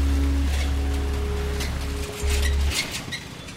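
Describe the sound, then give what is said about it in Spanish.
Steady rushing water of the Suchiate River, on the border between Guatemala and Mexico, fills the scene continuously, with a low motor-like drone humming underneath that briefly cuts out and returns; no voices. “y finalmente cruzaron las fuertes aguas del río Suchiate para evadir a las autoridades migratorias apostadas en el puente internacional que separa Guatemala y Chiapas.”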